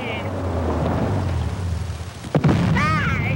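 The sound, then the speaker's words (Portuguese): A cartoon explosion sound effect from The Simpsons, an object exploding out of nowhere: a steady low rumbling roar, then a sudden sharp blast near the end, followed by a brief wavering, high-pitched whine. “E aí, cara, se a gente estivesse contando quantos objetos já explodiram do nada dos Simpsons, eu acho que já teria passado”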